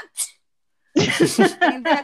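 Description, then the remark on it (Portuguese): A person imitates a sneeze with one quick, breathy hiss, as if sneezing unintentionally when someone comes near, followed after a short pause by a burst of rhythmic laughter. “Quando chegar perto, você dá uma espirradinha sem querer, assim”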